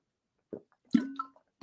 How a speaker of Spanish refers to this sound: Nos hidratamos ahí, sonidito del agua y continuamos.